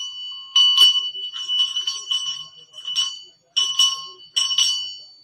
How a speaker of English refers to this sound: Please donate, put some money in the basket. And you feel good like you've done something good. You feel good because the bell's ringing. That's why.